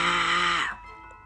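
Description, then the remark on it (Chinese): A voice imitates a little dinosaur's 'wa-wa' roar, practiced after school: one loud, sustained, buzzy cry lasting over half a second, breaking off abruptly into near silence. “阿古拉连放学后也不停的吼着：“哇哇！”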